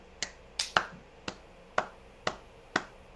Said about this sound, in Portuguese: É... Palminhas, palminhas pra sincronizar.